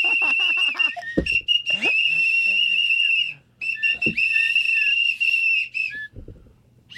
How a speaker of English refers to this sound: Ow! Ow! Ow! Oh they all have whistles.